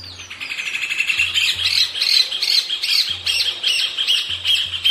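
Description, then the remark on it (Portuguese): A rufous hornero's (João-de-barro) song: a loud, rapid run of shrill, ringing notes repeated in a steady, laugh-like rhythm for several seconds, with a low intermittent rumble underneath and no talking. “Seu canto parece uma gargalhada.”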